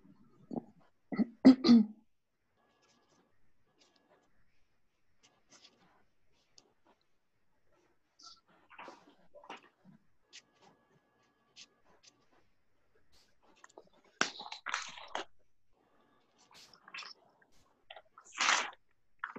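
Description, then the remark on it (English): A deck of cards being shuffled, with quiet papery rustles and a few brisk riffle bursts, the loudest near the start and end, separated by softer handling sounds. “Okay, I'm just gonna shuffle them.”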